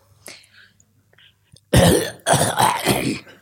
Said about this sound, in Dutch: Vader kuchte